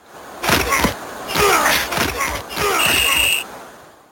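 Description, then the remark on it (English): Video game football action: a series of heavy, crunching tackle impacts over a noisy crowd-like background, followed by a sustained, shrill referee whistle near the end. “Okay, so we got a whistle there. We got a lot of tackling.”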